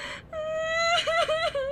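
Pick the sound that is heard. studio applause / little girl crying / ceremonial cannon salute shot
little girl crying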